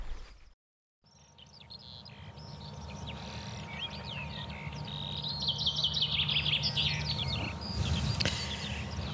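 Birdsong in morning sun on 2 May 2021 at the embankment of Hyvelä lake, a drained lake turned field that the Nummijoki floods in spring: several birds chirp and trill in quick overlapping phrases, with a busy warbling run in the middle, above a steady low rumble.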